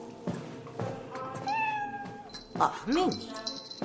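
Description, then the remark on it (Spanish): A white cat meows twice: a long, drawn-out cry followed by a shorter rising-and-falling one, with a voice faintly audible underneath. “Pasa junto a un gato blanco.”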